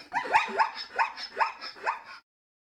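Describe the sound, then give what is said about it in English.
A zebra calls in a quick run of about six sharp, yelping barks, evenly spaced, with nothing else audible before it stops abruptly. “Today's Name That Sound sound is. A zebra!”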